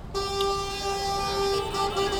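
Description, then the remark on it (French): A car horn blares in one long, steady, unbroken honk lasting about two seconds, loud, with faint traffic noise around it and no voices, recorded as ambience at a prefecture. “Ambiance 1, documentaire sur Raël à la préfecture. Fait orange. Voiture.”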